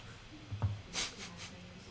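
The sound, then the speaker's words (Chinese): A colleague typing on a computer keyboard in a large company office of about fifty ping: a few soft, hissy key clicks arrive irregularly after a dull low thump, over a quiet background hum with no clear speech. “他说他的键盘声都收进去了。”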